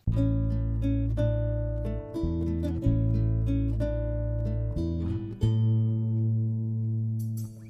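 A song's instrumental introduction plays with no vocals, full sustained chords shifting every second or so over a strong low bass, steady and fairly loud before easing slightly at the end.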